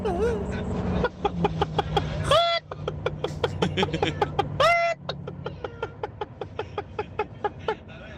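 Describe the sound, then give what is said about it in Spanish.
A person imitates a laying hen in a listener's WhatsApp audio message, a rapid run of clucks broken by two loud rising squawks, over a low steady hum in the background. “Esa es la gallina ponedora. Tremenda gallina, tremenda gallina.”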